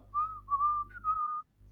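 Someone whistles a short, wavering tune while walking up with a bottle of wine in each hand, the melody gliding up and down in a few connected phrases over a low steady hum, then stopping abruptly.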